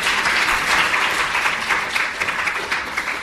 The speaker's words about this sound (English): he gets a round of applause.